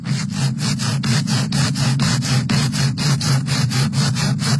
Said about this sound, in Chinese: 得把这个锯成一节一节的，因为这树已经枯了，老虎要是爬上去以后容易掉下来摔着。